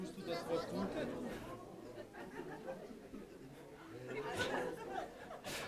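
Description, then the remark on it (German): A roomful of people turning to chat with their neighbours at once, a steady overlapping murmur of many voices with occasional brief laughs, moderately loud throughout. “Guck mal deinen Nachbarn an und sag, tust du das Wort tuten?”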